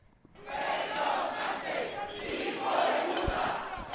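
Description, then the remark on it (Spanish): Hundreds of people gathered at night outside the PSOE headquarters shout slogans in unison, voices swelling in repeated rhythmic bursts that blend into a dense, continuous roar, loud with no individual speech standing out. “Anoche cientos de personas se volvieron a concentrar ante la sede del PSOE, convocados por Revuelta, organización vinculada a Vox.”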